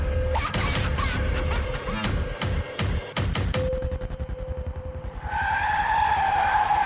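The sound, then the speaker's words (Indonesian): A sand-hauling truck on a main road in Batang skids with a loud, sustained tire squeal, broken by several sharp, heavy crashing impacts as it runs over a person, then a rough engine-like roar carries on to the end. “Tiba-tiba terdengar suara benturan keras.”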